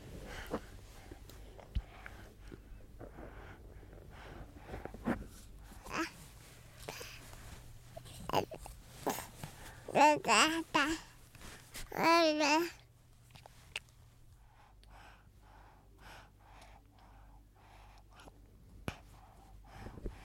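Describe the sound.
A baby lets out two loud, strained, warbling cries that sound like Chewbacca the Wookiee's growling roar, each about a second long, with soft babbling and quiet breathing in between.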